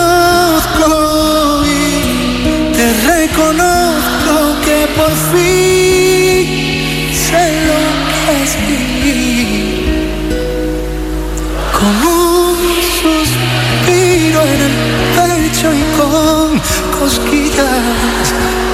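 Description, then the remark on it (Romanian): A loud live song by a Spanish artist, a duet, plays steadily throughout, with a concert crowd singing along with the lead vocalist over the band, voices blending into a full, continuous chorus. “Se aude publicul cântă cu el”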